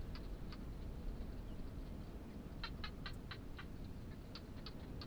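A barking gecko calls in the desert in the evening in short, sharp clicking bursts, some single and some in quick runs, fairly faint against a steady rush of wind. No one speaks.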